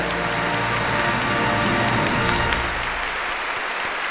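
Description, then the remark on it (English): A large crowd applauds and cheers as the hosts of a show are introduced. It is a dense wash of clapping with cheering mixed in, holding steady and loud for several seconds before easing slightly toward the end. “Look at all this oh, people. Oh, man. Wow, it's, it's I didn't expect so many people wow. to come out.”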